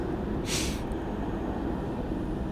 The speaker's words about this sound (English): there's a big rumble from trains going past.